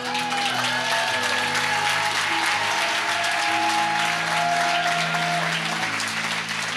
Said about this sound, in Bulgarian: А, някой трябва да ръкопляска на Бог.